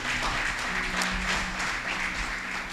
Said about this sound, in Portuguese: Ora, coloque a sua Bíblia no colo e aplauda bem bonito a palavra de Deus.